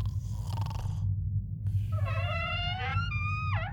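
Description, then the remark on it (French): A little girl snoring while asleep: a steady, rumbling snore drones low throughout, joined partway by high whistling tones that slide up and then drop, like a cartoonish sleeping breath. No one speaks. “c'est quoi ce bruit T'entends Ah oui, ça fait flipper On dirait un aspirateur”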